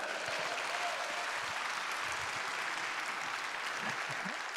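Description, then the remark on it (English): A crowd claps steadily in a dense, continuous wash of applause that holds an even loudness for several seconds, with no voices standing out, applauding a visiting baseball team from Kentucky. “How about a round of applause for that?”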